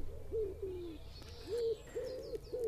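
A common wood pigeon coos in a steady rhythm, a string of low, hollow hooting notes rising and falling, with faint high bird chirps in the background.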